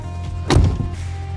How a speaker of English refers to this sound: All right, so truck doors open and close.